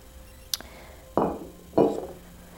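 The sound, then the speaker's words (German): A long-stemmed Glencairn whisky glass is picked up and handled indoors: a light tick, then two solid clinks of glass set against a hard surface, each ringing briefly before fading. No one speaks. “Und weil wir heute mal drinnen sind, dachte ich mir, nehme ich mir mal wieder ein langstieliges Glencairn-Glas.”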